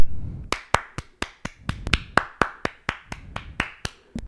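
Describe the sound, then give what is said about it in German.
Steady, evenly spaced hand claps congratulating the winner of a Bundesliga prediction game played for beer, about seventeen sharp slaps in a quick, regular rhythm, like a small round of applause with no voices. “Das ist übrigens mega. Applaus.”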